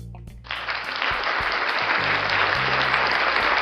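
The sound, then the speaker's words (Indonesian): A crowd bursts into applause, a dense, steady wash of clapping that swells in quickly and keeps going at an even, loud level, with no voices on top. “gue usah tepuk tangan gue bukan SJW”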